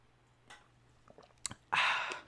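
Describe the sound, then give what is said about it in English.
A few soft mouth clicks and wet smacks, then a louder, breathy slurping sip of raspberry lemonade Mountain Dew soda lasting about half a second, over a faint low hum. “quick sip. It's pretty good. It's like a raspberry lemonade, Mountain Dew.”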